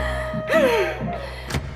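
Someone tries to open several doors, all of them locked: a couple of dull thunks from a rattled handle, a brief high squeak that slides downward, then a sharp knock-like clack, with no talking.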